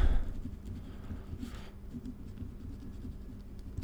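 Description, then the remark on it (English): Steady scratching of a pen or pencil moving across paper as someone writes notes by hand, with a soft continuous rhythm of strokes and small pauses, no talking. “Thank you for listening while I write myself some notes.”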